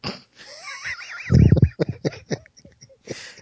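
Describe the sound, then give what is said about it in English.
Someone sniffs at a bottle cap: breathy inhales, one heavy snorting draw, then a run of short, quick sniffs in an uneven rhythm. No one speaks. “I'm yeah, you just gotta sniff the cap a little bit.”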